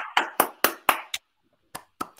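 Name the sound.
brief applause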